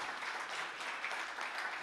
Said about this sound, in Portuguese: Então aplauda o Senhor agora, em nome de Jesus. Obrigado, Senhor.